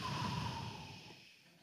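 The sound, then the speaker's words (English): A single soft, airy exhale through the mouth, steady, trailing off over about a second and a half with no talking. “And one thing you don't see a lot is, is the breathing the in through the nose, the out through the mouth.”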